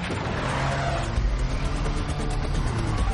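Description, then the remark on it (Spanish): A car engine drones steadily and loud throughout, with a low rumble and rising rev as a man drives fast along a dusty street, road and tire noise filling the background. “Conduce rápido por una calle polvorienta.”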